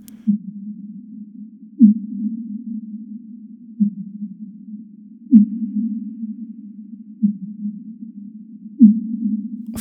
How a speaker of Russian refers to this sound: Они пишут, что эти самые сейсмические станции фиксируют еще и одни из самых громких природных звуков в океане. Это звуки кита Финвала, которые распространяются в воде на сотни километров